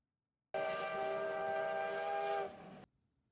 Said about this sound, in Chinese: 听到楼下有小火车经过的声音，乐乐忍不住问道：“乔治，那是什么声音啊？”“应该是小火车哦，我们要不要去看看呢？”